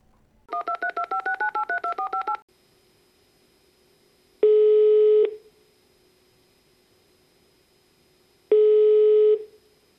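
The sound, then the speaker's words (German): A quick run of about a dozen touch-tone keypad beeps as a phone number is dialed, then two long, evenly spaced ringback tones with silent gaps between them, with no voices. “Direkt ich wähle jetzt, jetzt mal, wieder.”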